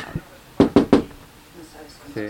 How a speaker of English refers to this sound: she heard a knock on the door